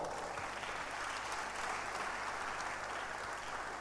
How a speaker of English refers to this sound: Wow. Clap your hands for